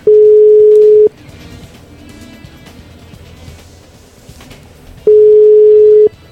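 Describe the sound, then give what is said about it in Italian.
A telephone ringback tone sounds twice, each a steady, loud one-second beep at a single mid pitch, separated by about four seconds of quiet line hiss with faint background noise. “Dai Giorgio, rispondi, forza.”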